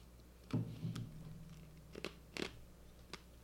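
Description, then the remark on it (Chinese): Several sharp, crackly crunches from someone biting and chewing ice cubes, coming in uneven bursts with short pauses between, over a low steady hum and no talking. “我要咬冰块。”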